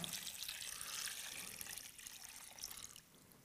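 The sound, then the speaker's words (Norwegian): Water pours steadily into a container for a few seconds, a continuous splashing trickle with a bright, hissy texture that eases slightly toward the end. “Jeg skulle egentlig hatt mer vann der, men han var ikke stor nok.”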